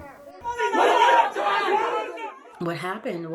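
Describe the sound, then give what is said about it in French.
A crowd of residents gathered on another floor shouting together in protest, a loud, dense wall of raised voices swelling for a couple of seconds, then a single voice rising in sharp, emphatic calls. “La situation a atteint son paroxysme lorsque les résidents se sont réunis pour protester à un autre étage.”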